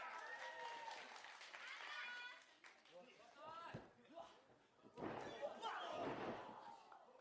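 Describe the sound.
A sharp, heavy slam thuds once midway through as wrestler Tama hits Goto with a drop kick in a wrestling match, surrounded by a loud arena crowd cheering and clapping, with voices shouting over the din.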